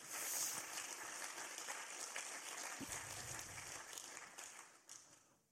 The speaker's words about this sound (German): Auch äh, ein neuer Schlagzeuger ist da. Der, der Typ spielt gut, wirklich. Dem können wir echt mal Applaus geben, dem neuen Schlagzeuger.